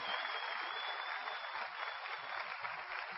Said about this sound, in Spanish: Vamos a dar un aplauso a los oradores que han hecho un trabajo brutal, brutal, extraordinario.